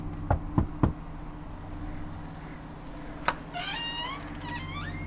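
Three quick, evenly spaced knocks on a door, followed after a pause by a single click and a drawn-out squeaky creak, all over a steady low hum.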